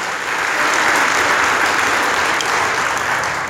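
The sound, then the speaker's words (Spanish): An audience applauds the Lord during a sermon, a dense wash of many hands clapping at once, sustained and fairly loud throughout with no voices standing out. “Denle la aplauso al Señor si se lo va a dar, por favor.”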